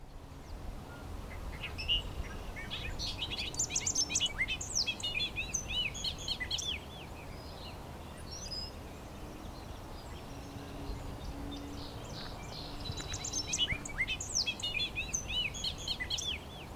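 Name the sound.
bobolink song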